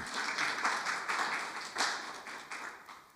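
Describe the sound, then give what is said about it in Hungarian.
A crowd applauds steadily for the person running the projection, many overlapping hand claps forming a dense, continuous patter at moderate volume, with no talking over it. “Adjunk egy nagy tapsot neki, mert rengeteget dolgozik.”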